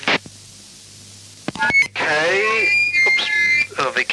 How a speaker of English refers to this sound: I think there might have been someone squiggling over you. It could have been interference here. I'll just, just take a listen. Apparently that's probably a local interference here.